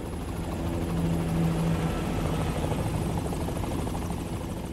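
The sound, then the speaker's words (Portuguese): A helicopter roars overhead, its rotor blades thumping in a steady rapid chop over a heavy engine drone, swelling slightly and staying loud throughout, with no voices. “Inclusive você abre o seu documentário com a imagem dos urubus, com o som de helicóptero e tal.”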